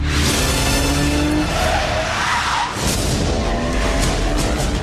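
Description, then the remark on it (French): Loud, dense action-movie trailer soundtrack: a car's tires skidding and squealing, engine roar and crashing impacts layered over booming music, continuous throughout; the first trailer for a new film, lasting 2 minutes 35. “Première bande-annonce euh, du nouveau James Bond. Ouais, je vous fais entendre ça.”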